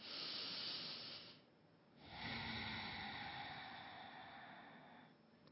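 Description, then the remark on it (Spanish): A deep breath taken during a guided breathing exercise: a rushing inhale lasting about a second, a brief pause, then a long, steady airy exhale that slowly fades, with no talking. “Otra segunda respiración.”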